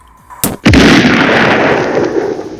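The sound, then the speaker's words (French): A loud explosion: a sharp crack, then a massive blast that rolls into a sustained roaring rumble with debris-like noise, still going at the end with no voices. A gas explosion in a house kitchen, set off when a small pocket of gas met the spark of an electric fly swatter, destroying the kitchen and damaging the roof. “eh ben, ça a donné une grosse explosion, anéantissant au passage la cuisine et endommageant la toiture de l'habitation.”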